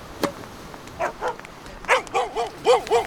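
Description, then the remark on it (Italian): A small dog named Mia barks in a quick run of high, sharp yaps, about eight in three seconds, growing slightly louder and more insistent toward the end, with no one talking, by a pine grove where people play with beach rackets and a ball. “Ciao Mia, bel cagnolino!”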